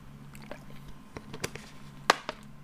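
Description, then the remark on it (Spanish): Someone takes a small sip of water, with scattered soft clicks and small wet mouth sounds, then a sharper click near the end; no one speaks. “Déjenme tomar un traguito de agua porque esto va a estar un poquito eh, alargado.”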